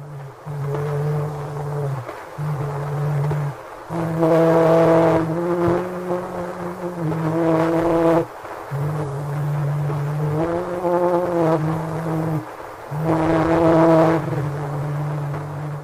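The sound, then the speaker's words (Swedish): Scott's phonautograph recording made on 9 April 1860, reproduced in 2008 by Livermore Laboratory in California: a man's voice, believed to be Scott himself, sings Au clair de la lune, a slow, simple melody in sustained low notes, grouped into short phrases with brief breaks, heavily buried in constant buzzing hiss. “Forskarna tror att det är Scott själv som sjunger Au clair de la lune”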